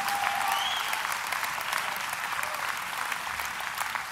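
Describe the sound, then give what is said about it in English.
An audience breaks into steady, dense applause, many hands clapping together in a continuous wash for several seconds with no voices standing out. “Clap, man. Help me out here.”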